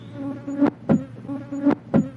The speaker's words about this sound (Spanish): Número 1. Mosca tetse.